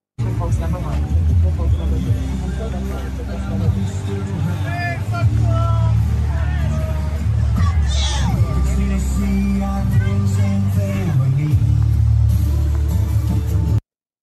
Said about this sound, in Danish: Ja, det man kan høre her, det er altså, at der er to, øh, der støder meget voldsomt sammen, for der er en, der råber fuck Trump, og så er der nogle andre, der råber fuck you tilbage til dem.